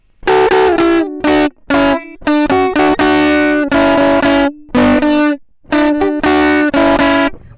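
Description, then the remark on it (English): Heavily distorted electric guitar, the distortion made by cranking up the guitar's input, playing a riff of short, choppy chords and sustained notes with brief gaps between bursts, loud and buzzy with rich harmonics, no talking over it. “and the way that I do that is just by cranking up the input on the guitar, and I will warn you to guard your ears now or turn down the volume.”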